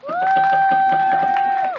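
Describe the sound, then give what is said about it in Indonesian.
Audience applause for the Laurentius audience, with quick, rhythmic clapping from a crowd, overlaid by a loud sustained whistle-like cheer that holds steady before dipping at the end. Brief and energetic. “Ye, tepuk tangan.”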